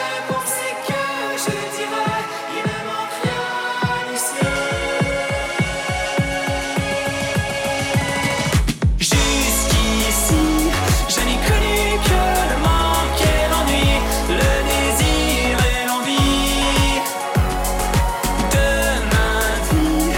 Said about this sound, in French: on écoute en grande primeur un extrait de sa chanson …